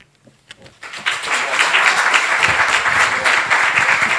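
An audience breaks into applause, starting with a few scattered claps before swelling into steady, loud clapping that holds for several seconds; a round of applause for the sound technician.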